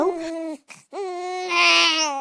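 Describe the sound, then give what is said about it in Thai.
A baby cries from a box floating on a river near a mill, in two long, wailing bursts separated by a short gasp, the second rising louder and more strained, clear with no talking. “เจ้าของโรงสีได้ยินเสียงร้องของเด็กทารกขึ้นมาจากแม่น้ำเมื่อตามเสียงไปก็พบกล่องใบหนึ่งลอยอยู่”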